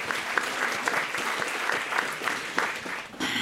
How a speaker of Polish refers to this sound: Wielkie brawa dla Darka.